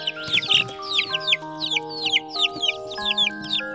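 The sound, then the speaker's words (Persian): Chickens and a rooster clucking in a garden in a quick, steady series of short, bright calls, with a soft sustained musical tone running underneath. “تو باغ حیوانات مختلفی هم زندگی میکردن مثل سگ، گربه، مرغ و خروس بچه مرغه هر روز تخم میذاشت چند تا جوجه هم داشت که خیلی کوچیک بودن”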